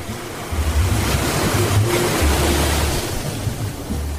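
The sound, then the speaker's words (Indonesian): Steady ocean surf washes and breaks on the shore of Bengkak Beach, Wongsorjo, Banyuwangi, East Java, Indonesia, facing the Bali Strait, on a sunny morning, a dense hiss layered over a low wind rumble on the microphone, with no one speaking. “Pagi di Pantai Bengkak, Kecamatan Wongsorjo, Banyuwangi, Jawa Timur. Dari sini kita bisa melihat langsung Selat Bali.”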